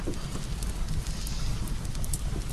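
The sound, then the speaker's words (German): A campfire that is being lit again crackles steadily, with scattered sharp pops and snaps over a continuous low rumble of burning wood and no one speaking. “Machen wir das Lagerfeuer wieder an, um es gleich wieder auszumachen um uns von euch zu verabschieden.”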